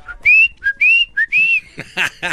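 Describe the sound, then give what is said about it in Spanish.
A person whistles an imitation of a little bird: three short, bright whistled chirps, each sliding up and holding, followed by a few quick breathy voiced sounds. “Esta mañana estaba caminando en el parque cuando escuché”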